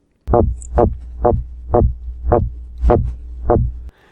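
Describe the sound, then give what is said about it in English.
A male midshipman fish's warning grunt at a rival male entering its space during mating season in Seattle waterways: seven low, throbbing pulses in a steady, evenly spaced train, loud, with a faint continuous hum underneath and no talking. “If a rival male enters their space, they'll make this sound.”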